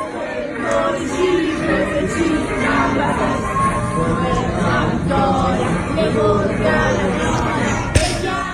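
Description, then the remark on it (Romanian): Dozens of Italians sing together from the windows and balconies of an apartment-block neighbourhood at night, a dense, steady wash of overlapping melody and chatter, with scattered claps keeping time and one sharper clap near the end. “La toate ferestrele și pe toate balcoanele sunt italieni, câte unul, câte cântă. doi, câte trei, care cântă și țin ritmul și aplaudă.”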